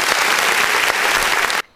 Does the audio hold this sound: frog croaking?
no